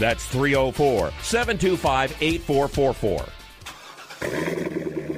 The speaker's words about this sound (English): You hear that? That's the sound of America's only sports car. That's right, it's a Corvette. But not just any Corvette, it's your Corvette.